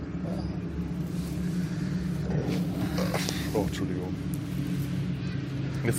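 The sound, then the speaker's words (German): A fleet of motorboats roars up the Rhine, a loud, steady low engine drone that rumbles without pause for the whole stretch while a voice briefly speaks over it. “Eine Motorbootflotte ist gerade den Rhein raufgefahren. Mit Krawall und Getöse.”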